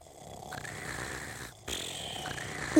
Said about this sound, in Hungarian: Nem ám, mert a varázslat hatására ők is ugyanúgy horkoltak, mint a testvérük.